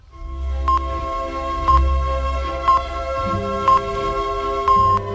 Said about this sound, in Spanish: la sinfonía número 6 de Mozart tiene este tiempo lento tan bonito que suena así